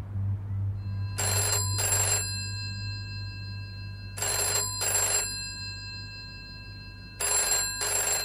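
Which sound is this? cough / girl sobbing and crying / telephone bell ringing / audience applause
telephone bell ringing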